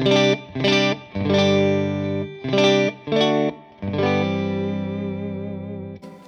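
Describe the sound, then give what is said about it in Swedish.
A distorted electric guitar plays through a single amplifier, the Insulander, one of two amplifiers being heard separately: several chunky, heavily driven chords in a choppy rhythm, then one long sustained chord that rings out and slowly fades. No one speaks. “så här låter Insulander.”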